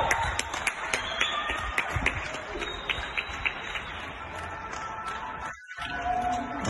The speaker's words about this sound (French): Ah, il est 20h, ça applaudit au balcon. T'entends pas, mais au loin, en fait, t'entends les bruits.